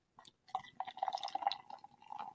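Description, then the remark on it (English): A freshly opened, orange-smelling drink is poured into a glass cup, a steady trickle with bright glassy gurgles for about two seconds, fairly quiet with no voices. “I'm actually pouring it in a glass cup, if you can believe that.”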